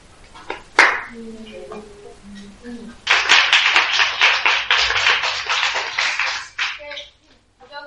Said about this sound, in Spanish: creo que eh, otro aplauso más